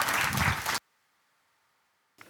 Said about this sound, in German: Nun bedanke ich mich bei euch Freiwilligen und ihr habt auf jeden Fall euch einen Applaus verdient. Vielen Dank.